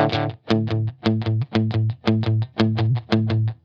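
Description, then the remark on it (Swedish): An electric guitar played through a slapback delay pedal plays a steady, chugging rhythmic figure, each low, twangy note followed by a quick slapback echo that doubles the attack. It's fairly loud and continuous, with no talking. “Det är, jag tänkte jag skulle försöka se om jag kunde få till ditt slapback.”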